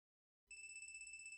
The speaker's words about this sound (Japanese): なんで携帯が鳴っとるんや。佐竹は携帯を手にしたまま、それが鳴る方へ歩き出した。